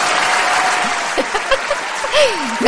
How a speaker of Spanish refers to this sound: Y aplausos.